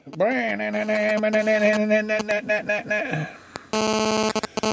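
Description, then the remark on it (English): A voice hums a wavering tune, then a loud electronic burst of rapid buzzy pulses from a phone takes over, the sound of data for an incoming picture message arriving. “Oh, that's a, that's the sound of throbbing data coming in, isn't it?”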